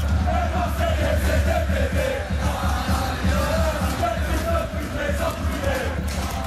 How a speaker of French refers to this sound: Bah oui, les supporters parisiens ont donné des chants homophobes dans la tribune Boulogne. Je vous propose d'écouter un extrait.